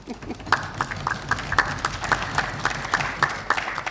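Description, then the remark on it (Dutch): A short round of applause from a few people at a council meeting, sharp claps landing in a quick, fairly steady rhythm at moderate loudness, with no talking over it. “Ik denk dat verdient een extra applaus.”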